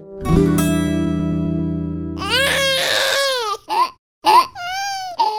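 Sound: newborn baby crying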